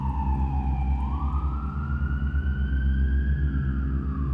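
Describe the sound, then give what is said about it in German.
An emergency vehicle siren wails in a slow rising and falling sweep, heard from a distance over a steady low rumble of engine or traffic noise, with no voices. “Der fremde Energiestrom jedoch blieb, hielt sie bei Bewusstsein, bis endlich aus der Ferne Sirenen erklangen, sie in ergebener Erleichterung die Augen schloss und dabei ein grünliches Glimmern hinter ihren Lidern verschwinden ließ.”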